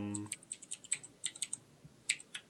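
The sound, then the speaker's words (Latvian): Rapid, irregular keystrokes clatter on a computer keyboard, a steady run of crisp clicks, with a brief voice at the very start. “tu raksti. Ko tu raksti?”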